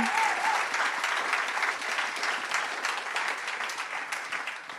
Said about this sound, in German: Ein Riesenapplaus an das Team, das das vorbereitet hat. Was ein krasses Video. Gebt den Leuten nochmal einen Applaus. Hammer schön.